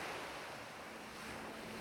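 Steady ocean surf fills the scene, a continuous broad wash of waves with a faint windy hiss, even and unbroken throughout, with no voices.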